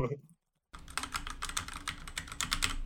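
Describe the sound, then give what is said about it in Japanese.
Rapid, muted keystrokes on a mechanical computer keyboard with red switches, a soft dense patter of clicks after a brief silent gap, with no talking over them. “あの、簡単に言えば、うん、あの、あ、あのカチカチカチカチカチ、カチカチカチとかいう音じゃなくて、なんか、スコスコスコスコスコ、スコスコスコスコみたいな感じの音が鳴るんですよね。”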